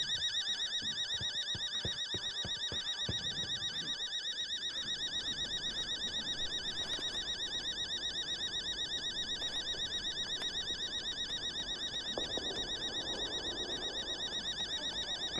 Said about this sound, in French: Purée, fait mal au crâne là, cette alarme.